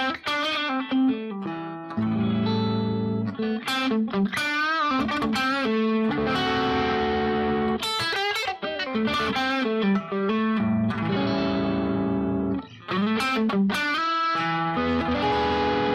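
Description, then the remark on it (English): A distorted electric guitar plays a bluesy minor pentatonic line over the backing chords, mixing sustained bends with quicker runs, loud, with a steady backing underneath and no talking. “now, with those sounds, if you were to take that minor pentatonic we talked about, it's going to sound really nice over that, okay?”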